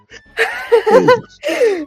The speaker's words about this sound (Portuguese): que o bocejo também passa por áudio, é isso? É, exatamente.